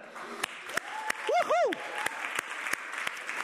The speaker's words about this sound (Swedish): Kan man inte bara ge en applåd till teknikgänget som sitter här nere?